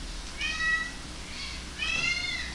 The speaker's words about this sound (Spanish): Ah, los gatos quieren, quieren comer, pero si les doy, quieren pizza también. Están a nada de hablar los gatos.